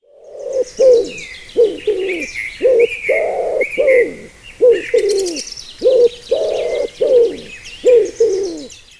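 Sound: dove cooing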